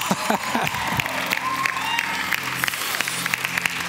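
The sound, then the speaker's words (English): An audience erupts in loud, sustained cheering and clapping, many voices shouting amen over one another in a steady roar that carries on for several seconds. “I was checking to see whether you'll shout amen or not.”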